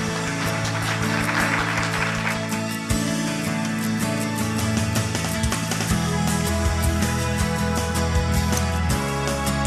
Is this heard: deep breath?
no